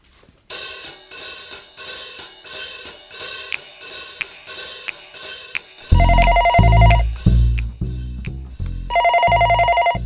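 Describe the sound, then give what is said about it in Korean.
A phone rings with a repeating electronic ringtone melody: steady tinkling notes at first, then louder and fuller with a thumping bass beat, playing on its own with no voices; the call goes unanswered and cuts off. “전화 오잖아. 전화 좀 받지 좀.”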